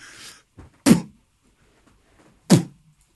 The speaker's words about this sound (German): nimmt man einfach vom Bäcker die, die Papiertüten. Reinpusten und reinhauen.